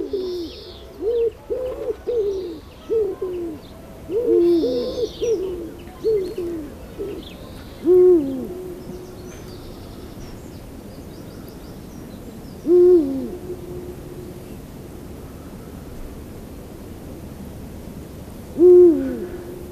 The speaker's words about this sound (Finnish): Ja huuhkajahan huutaa vähän eri tavalla. Kumea on kummankin ääni.